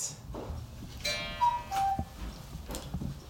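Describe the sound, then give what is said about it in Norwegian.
A cuckoo clock in a home sounds its two-note falling call once, the notes clear, with soft ticking and light clicks around it. “Gjøker, eh, gjøker, da? Ja, her har vi gjøker. Både ute og inne.”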